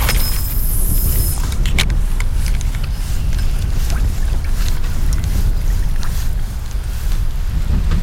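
A boat motors along the water, its steady low rumble loud throughout, with wind buffeting the microphone and a brief hiss of spray near the start. No one speaks.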